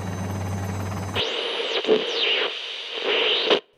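A loud helicopter rotor sound effect for a traffic report: a dense mechanical roar with a low hum, then giving way to swooping, whistling electronic tones before cutting off abruptly. No voices.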